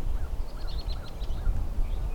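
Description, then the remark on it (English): A bobolink's bubbly, tinkling song rises in quick, jumbled notes as it sings while flying in the air, over a steady low rumble of wind or outdoor noise. “This bobolink is flying in the air and singing at the same time.”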